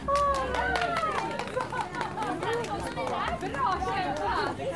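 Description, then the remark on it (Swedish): Busy crowd chatter fills an arena at a hobby horse jumping competition, many overlapping voices talking and calling out at once, steady throughout with no single voice standing out. “Och det var full fart på arenan och de tävlande avlöste varandra i en strid ström.”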